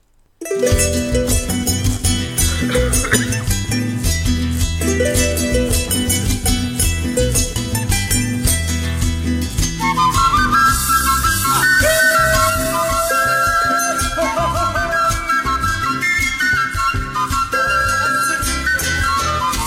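A full-band song by Ecuadorian singer-songwriters plays loudly and steadily throughout, with a driving rhythmic accompaniment and a bright melodic line rising above the mix in the second half; no one talks over it.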